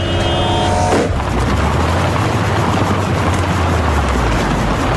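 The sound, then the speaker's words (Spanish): Loud traffic noise with a car engine roaring past, a dense steady rumble filling the whole stretch after a brief tonal, horn-like burst at the start. No one speaks. “es tener que salir al tráfico todos los días.”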